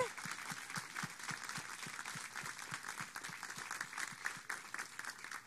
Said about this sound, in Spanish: Den un aplauso fuerte al pastor.